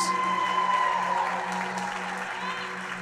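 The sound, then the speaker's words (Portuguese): An audience applauds and cheers for Jesus steadily for a few seconds, a dense wash of clapping and voices, with a sustained tone ringing underneath. “Deixa eu ouvir o barulho para Jesus.”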